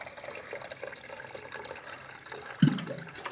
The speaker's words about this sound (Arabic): عشان انا ما نشرب بقى مية عشان ريقنا نشف من الهدية